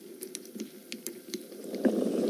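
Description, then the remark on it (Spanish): Thick strained homemade sauce pours into a hot cooking pot with potatoes, with crackling and bubbling that swells into a louder, steady sizzling gurgle toward the end. No one speaks. “Vamos a agregar la salsa que hicimos y colamos hace rato.”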